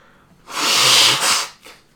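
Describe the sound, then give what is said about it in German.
A single loud sneeze bursts out with a hissy, breathy rush, followed by a brief sniff or exhale; no talking. “und ich schneide jetzt diese Schnäuze raus.”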